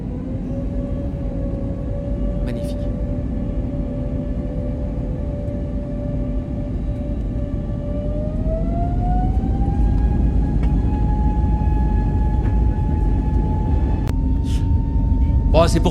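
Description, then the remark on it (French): Airbus A320neo jet engines roar steadily during the takeoff roll of Transavia's first commercial A320neo flight, bound for Porto. A rising whine climbs in pitch as they spool up to full power, the low rumble swelling louder and continuous, with a few faint clicks near the end. “Décollage. C'est historique cet instant. Hein. Premier décollage commercial de la 320 Neo de Transavia vers Porto.”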